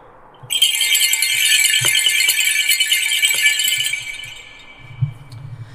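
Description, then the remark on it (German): A Schönkranz, a wreath of sleigh bells for horse-drawn vehicles used in winter as acoustic warning bells, jingles in a dense, bright shimmer for several seconds, a continuous metallic rattle with a few sharper clinks, then fading out. “Ist eigentlich bei uns bekannt für die Pferdefahrwerke, Schlittenglocken.”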